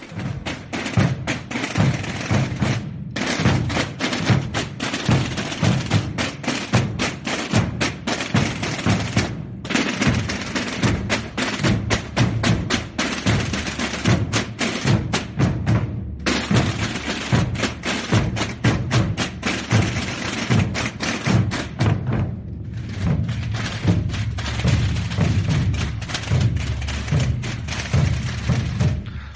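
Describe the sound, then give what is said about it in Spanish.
Loud, dense beating of many Holy Week (Semana Santa) drums played together in a driving rhythmic pattern, broken by brief pauses roughly every six seconds before the pounding resumes. No voices. “Estaba escuchando las imágenes y me, traía, me traía muchísimos recuerdos porque este es un toque que hablaremos de él porque se llama Las imágenes”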